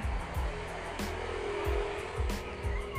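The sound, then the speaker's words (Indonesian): Motorbikes pass on a road beside a house, their engines droning steadily with a few rising and falling whines as they go by, over a constant roar of traffic noise. “sorry ya banyak berisik banyak motor karena rumah gue di pinggir jalan”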